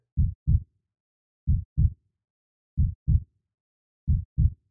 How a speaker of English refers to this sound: Papa, let me listen to your heartbeat. Oh, of course, darling. What do you hear?